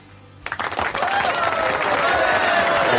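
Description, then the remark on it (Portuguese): Applause breaks out suddenly after a moment of quiet, starting with a few scattered claps and quickly swelling into dense, sustained clapping from a crowd. “tá fraco, tá fraco. Eu quero mais palmas.”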